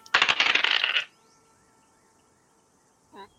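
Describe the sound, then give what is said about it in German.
A busy clatter of dice rattling and tumbling across a hard table for about a second, then quiet, with one brief faint tone near the end. The dice are rolled with advantage for a strength check in a tabletop game, coming up a natural one and a 19. “Einer kann würfeln mit Advantage, da euch gegenseitig unterstützt. Ich würfel mal okay.”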